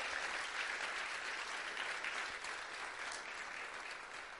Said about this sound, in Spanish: vamos, si vas a aplaudir, aplaude bien a Dios.